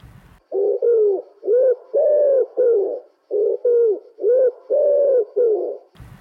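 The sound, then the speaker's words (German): A wood pigeon coos in two repeated phrases of about five soft, hooting notes each, with a short pause between phrases, heard clear with no other sounds. “Ringeltaube”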